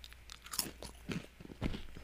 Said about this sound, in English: Is this ASMR for you guys? Or are you guys just turning this off right now because I just started crunching away?